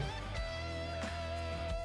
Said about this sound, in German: du hörst im Hintergrund schon, unser Jingle läuft rein.